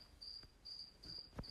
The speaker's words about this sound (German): Das ist das Geräusch einer Grille, die im Terrarium drin ist und nicht gefressen wurde von meinem zweiten Butterkram. Es ist 22.60 Uhr schon seit vier Tagen gefühlt ist diese Scheißgrille Grille drin. Zirpt rum.